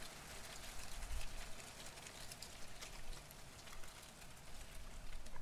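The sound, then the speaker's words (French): Dry leaves rustle and crackle continuously in strengthening wind gusts, a dry, brittle, dense hiss that swells slightly with the gusts over a low rumbling undertone; no voices are heard. “Le frisoli des feuilles chorégraphie en rond et brun, bruit sec et cassant.”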